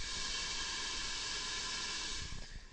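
A steady, continuous roar of construction machinery at a construction site outside a hotel in Hamburg, Germany, heard through a window as a broad hiss with a droning hum underneath, fairly loud and unbroken, with no voices.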